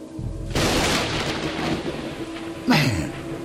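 A sudden loud crack of thunder from a lightning strike breaks in, then rolls on as a steady, rumbling roar, with a second brief surge of noise near the end. No one speaks.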